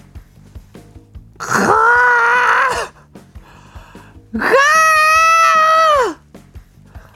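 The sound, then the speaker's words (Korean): Two long, loud snores, each a drawn-out droning rumble, separated by a short pause. They sound voiced and tonal, like a person imitating snoring, with no talking alongside. “누군가의 코 고는 소리가 엄청 크게 들리는 겁니다.”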